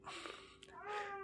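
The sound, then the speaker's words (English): A male cat meows twice in a row, a shorter call followed by a longer, drawn-out one, soft, with faint room noise underneath. “Sorry about that. That's my cat. He's uh, letting us know that he's here.”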